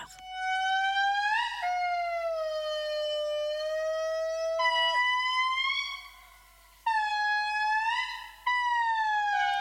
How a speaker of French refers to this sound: Ce petit lémurien Indri Indri que nous venons d'entendre, les coraux et les cèdres du Cap font tous partie de la grande famille de la biodiversité qui regroupe toutes les espèces du monde vivant.